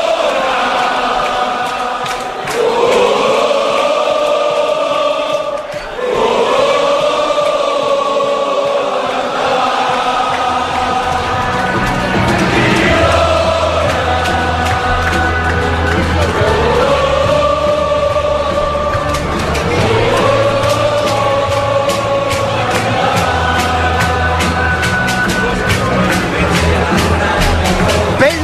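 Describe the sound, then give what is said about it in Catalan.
A packed crowd at Girona's Montilivi stadium, fans holding up red and white cards, roars along as the Girona club anthem plays, a big sustained wall of massed singing and music that stays loud and echoing for the whole stretch. “l'estadi ple, fa goig, els aficionats que van lluint les cartolines orgullosos són blanques i vermelles i l'himne del Girona que sona, que trona i diu...”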